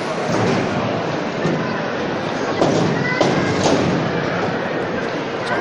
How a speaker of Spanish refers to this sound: ese ruido de la colocación de las rampas en la Basílica Menor de San Ildefonso para la salida de la Hermandad de la Soledad.